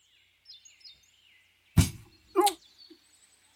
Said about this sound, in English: my chair my chair shifted it's a horrifying fucking sound yeah that, that most people won't hear. So that's fun. There's a loud for, thud for those of you who are listening to the edited portion of this